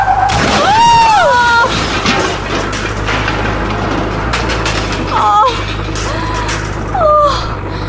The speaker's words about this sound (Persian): صدای چی بود؟ برو حیوان برو که فکر کنم جلوتر تصادف شده